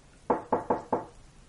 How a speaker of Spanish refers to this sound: Así que, en lugar de intentar abrir sin más, llamé a la puerta.